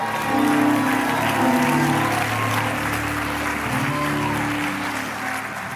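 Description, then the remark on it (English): A church audience claps steadily for about 15 seconds in praise of God during a sermon. A dense, sustained wash of applause at a fairly loud level, with faint voices and a low musical tone humming underneath throughout. “Take 15 seconds and clap those hands.”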